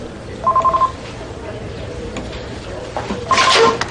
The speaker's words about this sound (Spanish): la joven recibe una llamada al móvil.